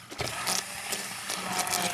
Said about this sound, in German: Jetzt hast du so eine Art Zauberstab, so einen Pürierstab.